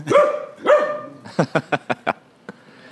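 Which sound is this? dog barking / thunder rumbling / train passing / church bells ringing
dog barking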